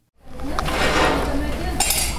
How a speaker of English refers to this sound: On a Saturday morning, a half dozen women are chopping vegetables and mixing spices for a chickpea curry. They're preparing an Indian meal for more than 25 guests.